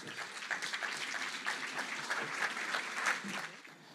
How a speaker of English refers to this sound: So let's give a big round of applause to everyone.